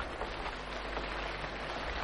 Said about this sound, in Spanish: Llueve. Sabemos. Usted, yo, todos, que tenía que llover.